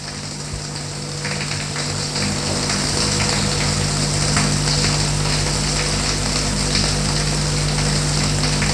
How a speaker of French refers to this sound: Elle se déshabille. pour aller prendre une douche.